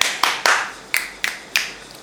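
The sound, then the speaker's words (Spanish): Six crisp finger snaps ring out with no talking, three in quick succession and then three more at slightly wider, uneven intervals, each a sharp, bright click. “Bueno, eh, hago chasquidos porque hace unos meses tuve un show en Mendoza que salió muy bien.”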